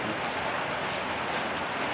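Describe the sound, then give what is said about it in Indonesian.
Steady rain pours down in a dense, even hiss, filling the whole stretch without pause. It sounds fairly loud, with no voices or other sounds breaking through. “Ini surah hujan kadangnya tuh.”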